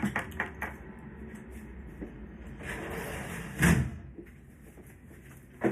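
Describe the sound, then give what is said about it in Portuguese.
A door or window slides shut with a rumbling scrape, ending in a solid thud. Steady background noise surrounds it, and no one speaks. “Se eu fechar ali, gente, que é muito barulho.”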